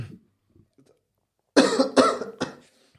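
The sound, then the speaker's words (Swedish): A brief low throat-clearing rumble, then after a pause three harsh coughs in quick succession, loud and raspy, fading at the end. “Man börjar låta som min lärare nu. Ja. Hostar han mycket?”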